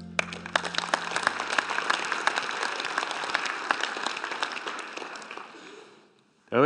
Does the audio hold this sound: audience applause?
yes